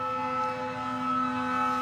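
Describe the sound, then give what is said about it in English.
A siren sound effect blares as a steady, unwavering wail with a buzzy harmonic edge, loud and continuous for the whole moment, with no voices over it. “vibe alert, vibe alert. The vibes Sam. are too hot. Sirens on”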